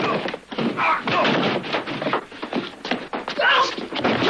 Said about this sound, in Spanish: Los dos hombres luchan. El matón golpea a Bon con una silla, luego a puñetazos.